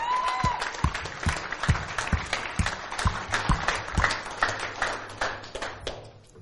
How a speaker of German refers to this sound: Lass uns der Band auch nochmal einen fetten Applaus geben, weil die haben echt einen Hammerjob getan.